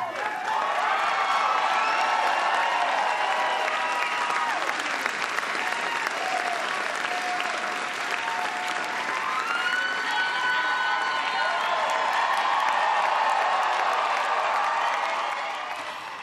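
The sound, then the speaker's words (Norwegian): Sustained crowd applause for Mitt Romney after his speech conceding defeat in the US presidential election, with steady, dense clapping and some cheering mixed in, loud throughout for about sixteen seconds before tapering slightly at the end. “Ja, han eh, fikk eh, applaus, eh, Mitt Romney, men det var jo talen der han erkjente nederlaget i presidentvalget i USA.”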